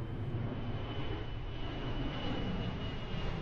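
An airplane takes off: a steady, dense aircraft engine roar fills the whole clip, a broad rumbling drone with a faint high whine running through it, holding constant loudness without pause and no voices.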